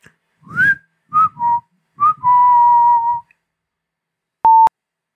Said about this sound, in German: Hier gibt es nichts Justiziables oder sonst viel Problematisches zu hören. Nur einen Mann, der unschuldig pfeift.